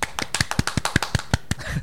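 A short clapping sound effect marking the announcement of a synthesizer meetup: about ten sharp, quick handclaps in a loose, slightly uneven rhythm, moderately loud, with no voices over them.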